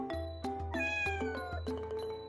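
A cat brought before a king meows repeatedly and insistently, several drawn-out, rising and falling cries in quick succession, loud, with no other voices.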